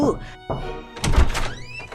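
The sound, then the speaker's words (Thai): A few heavy, dull knocks on the door of a large palace, separated by short pauses, with a faint voice and ringing tones lingering underneath. “หลายต่อหลายวันผ่านมาดิเอโกพี่ ใหญ่ได้เดินทางมาถึงวังใหญ่แห่งหนึ่ง เขาจึงได้เข้าไปเคาะประตู”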